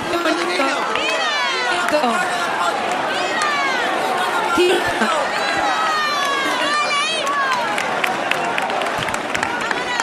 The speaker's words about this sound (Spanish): Los aplausos aquí se notan, ¿no? La vemos. La ven, chao. Acaba de salir de la ermita. Recibida con aplausos. Todo el mundo captando este momento Acaba de pasar la Virgen.